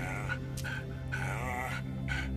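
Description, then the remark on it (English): The dog Hazel whimpers in a few drawn-out, wavering whines, fairly loud, each cry rising and falling in pitch with short pauses between them and no talking. “She looked at Ace and made a long, low sound”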